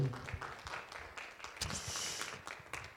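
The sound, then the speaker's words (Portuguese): A church audience applauds the Lord, a dense, steady patter of many hands clapping that holds at an even, moderate loudness for about three seconds, with no one speaking over it. “Aplauda ao Senhor, que Deus é bom.”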